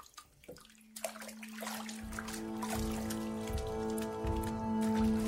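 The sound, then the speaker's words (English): Water sloshes and splashes continuously as clothes are scrubbed and swirled in a basin by hand, old Mrs. Hostler washing clothing at William Burke's house, with a steady low tone humming underneath throughout. “William Burke watched old Mrs. Hostler wash clothing at his house.”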